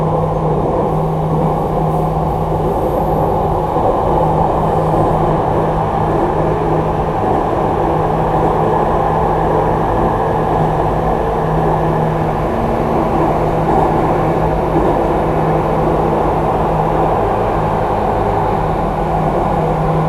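A Jakarta MRT train rumbles steadily between Lebak Bulus station and Blok A station, a loud, continuous low roar with a sustained humming tone and faint rattling, no voices, holding the same level throughout.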